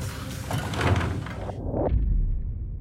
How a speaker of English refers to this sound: sneaking in through the patio door of our Sting House in Riverside County, California.